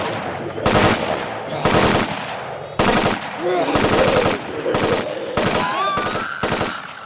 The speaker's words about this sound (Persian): آرمی شروع کرد شلیک کردن بهشون آسان هم شلیک کرد